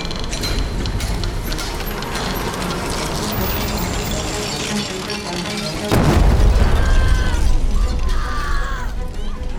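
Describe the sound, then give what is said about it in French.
Clattering mechanical noise gives way to a sudden deep blast about two-thirds through, followed by a heavy, sustained rumble: an explosion at the Agrappe coal mine in Frameries on 17 April 1879, resounding through the whole region. “Le 17 avril 1879, une explosion retentit au charbonnage de la grappe à Framery.”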